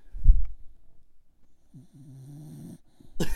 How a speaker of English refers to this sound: I don't know if you guys can hear this. I got a dog sitting right next to me, and she is snoring.